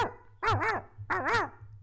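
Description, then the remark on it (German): Two short, bright dog barks, each one wavering in pitch, come in quick succession as the mobile phone ringtone of an old man on a train, over a steady low hum, with no one talking. “Ich habe heute zum Beispiel im, äh, in der Bahn habe ich mitbekommen, Alter, da war so ein Opa, das Handy von dem hat geklingelt, aber das war so ein Hundebellen, Alter.”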